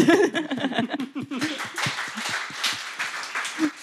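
A burst of laughter and chuckling gives way to a crowd's steady, moderately loud applause, many hands clapping in a dense, even patter that continues to the end.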